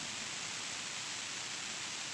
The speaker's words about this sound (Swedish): Nu, nu blev vi av med bruset också.